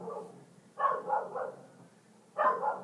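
A female dog barks in short bursts, a quick run of three or four barks, a pause, then a couple more, moderately loud with no talking.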